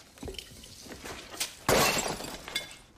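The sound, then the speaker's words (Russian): A ceramic vase shatters in one loud crash, preceded by a few light clinks and followed by the brief rattle of scattering shards. No one speaks. “И не переживай из-за вазы. Какой вазы?”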